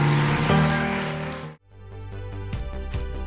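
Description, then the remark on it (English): A church audience shouts and claps for the Lord in a dense, loud roar for about a second and a half, then it cuts off abruptly and sustained musical chords carry on alone. “Let's give the Lord a shout and a hand clap.”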